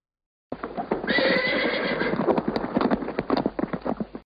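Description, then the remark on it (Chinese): A horse whinnies loudly over a steady clip-clop of hooves as the king's horse-drawn carriage passes, the neighing fading after a second or so while the rhythmic hoofbeats continue, sharp and even, until the sound cuts off. “这时候，他已经听见国王的车马就要经过他家门口了。”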